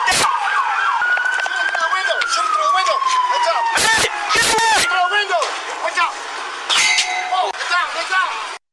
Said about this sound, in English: that's return fire from Gene Atkins, the shooter, hitting like a nearby pole as that he's trying to shoot at cops